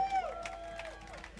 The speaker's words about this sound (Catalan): Un fort aplaudiment per ell, sisplau.